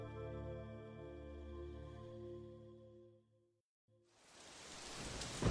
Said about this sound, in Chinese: 雨声，雷声。